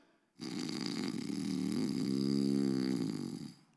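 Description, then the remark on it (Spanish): A person imitates loud snoring with one long, rasping, rattling breath lasting about three seconds, forceful, with no other talk. “que feos roncan los leones. Era Daniel.”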